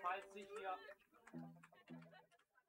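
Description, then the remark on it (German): A person mimics a clucking chicken, starting with a loud, squawky burst followed by a few shorter, lower clucks, fairly loud. “Du bist ein Huhn!”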